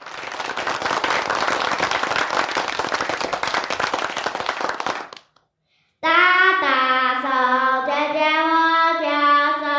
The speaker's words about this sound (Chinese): 我们各位听众来个掌声吧。